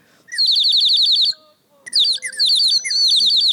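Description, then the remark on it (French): A water whistle, its tip set right at the water line so water bubbles form, warbles like a songbird in two loud bursts of rapid, high, trilling chirps, with a brief pause between them and no talking. “Et en fait, les bulles d'eau vont vraiment faire euh, des petits gazouillis d'oiseaux.”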